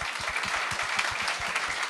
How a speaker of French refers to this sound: Oh, oui, on peut ben applaudir.